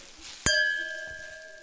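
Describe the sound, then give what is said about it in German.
A single bright clink of two glasses of Riesling wine touching in a toast, followed by a clear ringing tone that slowly fades over a quiet background, with no talking. “Und machst du uns zwei Gläser und eine Flasche Riesling fertig? Ah, Luki, endlich wieder Riesling und Fritte. Cheers!”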